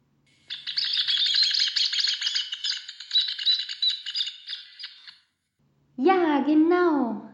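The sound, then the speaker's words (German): Rufous hornero calls ring out as a loud, rapid, chattering trill lasting several seconds, continuous, before a pause and a voice starting to speak. “ich werde euch über den Töpfervogel erzählen.”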